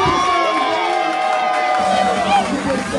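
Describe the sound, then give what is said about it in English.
A crowd cheers and shouts steadily for a few seconds for children under 18 at a modeling performance event, a loud, dense wall of voices with scattered high-pitched whoops and children's cries rising above the roar. “But will all of the babies Make some noise for these young”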